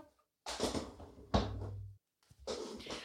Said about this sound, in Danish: Hov, oh, der er en, der gerne vil ind. Lige et øjeblik, jeg åbner lige døren.